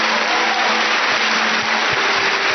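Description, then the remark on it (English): A church audience claps for Jesus together in a dense, steady roar of applause that holds at an even, fairly loud level throughout, with no voices standing out. “Come on, somebody, clap for Jesus.”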